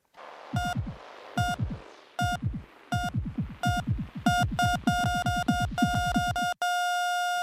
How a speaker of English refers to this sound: That intro sound, that heartbeat sound, means that it is time for Art Attack,